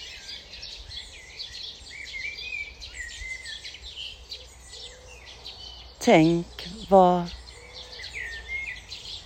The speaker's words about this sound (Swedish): Ja, ni hör. Fåglarna kvittrar. Det är en hel kör här. De har så mycket att säga.